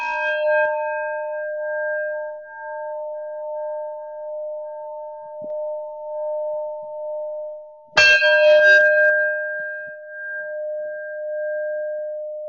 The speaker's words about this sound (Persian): ساعت 8 یک زنگ نواخته میشه که این زنگیه که در تمام روزهای آینده تنها صدای اصلیه که ما میشنویم که زنگ بیدار باشه بعد از اون شروع و پایان جلسات مدیتیشنه و بارها بارها این زنگ رو میشنویم